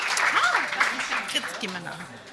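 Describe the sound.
A crowd applauds with a steady, dense patter of clapping, while voices call out and talk over it for a couple of seconds.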